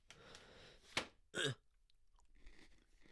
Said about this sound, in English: I feel like I have another Oreo. Do you guys want to hear me eat it or no?